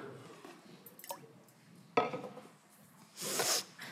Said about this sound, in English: I just spilled some water on myself. Yes, I did. That's what that awkward thing was.